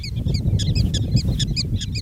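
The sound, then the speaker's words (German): Hundreds of greyish-brown prairie dogs in the sand call in a rapid, overlapping chorus of sharp, high chirps, many animals at once, over a steady low outdoor rumble. “Direkt vor ihm tummeln sich hunderte Präriehunde im Sand.”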